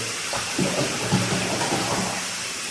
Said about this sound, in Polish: E, dlatego włażę do wody średniej a później kiedy już cały jest w tej wilgoci odkręcam kran na maksa na maksa temperaturowego